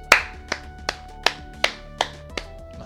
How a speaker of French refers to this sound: J'applaudis.